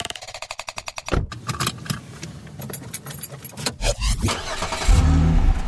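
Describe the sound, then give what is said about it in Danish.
Keys jingle in a quick rhythm, then the engine of a small green Fiat Punto cranks and catches, idling with some clunks before revving into a louder, steady rumble as the car pulls away. “så kom han og hentede mig i sin lille fjer, grønne Fiat Punto”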